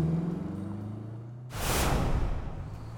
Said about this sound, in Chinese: 小卡车飞速向前开去，杨老板没有注意到。